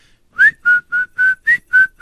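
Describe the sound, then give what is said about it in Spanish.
A person whistles the El Chavo del 8 theme, a short tune of seven distinct notes at a steady, bouncy rhythm, clear, each note held briefly with small gaps between them. No talking. “Este es silbada.”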